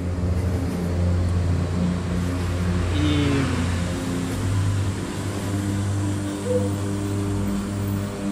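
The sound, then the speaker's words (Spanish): A heavy truck engine rumbles steadily for several seconds, swelling slightly as an early-morning truck passes outside, with a low droning hum throughout and no voices. “Camiones madrugadores. Gracias camiones por en el palo de nuestro podcast.”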